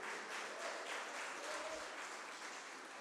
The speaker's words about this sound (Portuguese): Aleluia, gente, aleluia. Aplauda Ele bem alto.